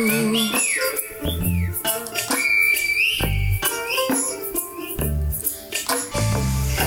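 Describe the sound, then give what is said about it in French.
Loud, sliding whistles of the Silbo Gomero whistled language, echoing on the island of La Gomera, rise and fall in quick phrases, carried over a steady musical backing with soft low thumps throughout. “Sur l'île de la Coméra, on entend le Silbo en écho.”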